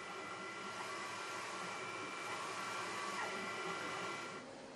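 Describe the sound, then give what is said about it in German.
A 3D printer runs steadily, its fans making a constant whir while motor tones hum and shift pitch as the print head moves, repeatedly applying wafer-thin plastic layers to build a small, complex part. The sound is even, with no talking, and ends abruptly. “Der Drucker trägt immer wieder hauchdünne Kunststoffschichten auf, bis so ein Teil fertig ist.”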